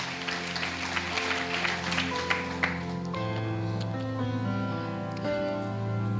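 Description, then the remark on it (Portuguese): An audience applauds to give glory to God in a dense, steady burst for about three seconds, then the clapping fades as sustained keyboard chords ring on underneath. “Quem recebe isso da glória a Deus, aplauda ele.”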